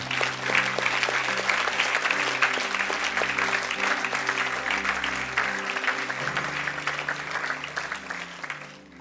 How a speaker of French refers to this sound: Et tous ceux qui l'aiment lui donnent une grande acclamation ce soir.